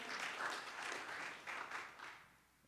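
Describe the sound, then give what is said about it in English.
A crowd claps together in praise of God in a dense burst of applause lasting a couple of seconds, steady at first, then thinning and fading out toward the end. “So give God a strong hand clap for that.”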